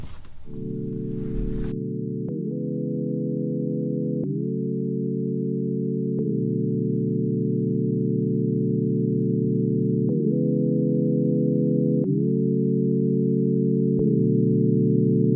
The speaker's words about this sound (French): on va vous faire jouer une de ses chansons en compagnie d'une artiste qui sera des Francs Francouvertes cette année.